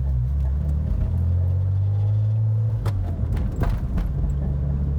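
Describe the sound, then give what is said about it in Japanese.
A manual-transmission car's engine drones low and steady from inside the vehicle, its pitch climbing with the accelerator and exhaust, then shifting abruptly, with a few brief knocks and clunks midway from gear changes. “僕の車はそうなんですよね今映像がないので何何とも分かりづらいと思いますけどあのマニュアル車なんですよなのでこうアクセルとギアチェンジの音がノイズとして入るのかなとアクセルの音はね入んないですけどこうエキゾーストのアクセルを踏んだ時のエキゾーストの音とあとは”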